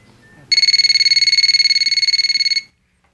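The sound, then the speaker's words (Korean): A telephone rings once in a single loud burst of about two seconds, a rapid high-pitched trilling warble that stops abruptly, with faint low background noise before and after. “전화라도 걸어보고 싶었습니다.”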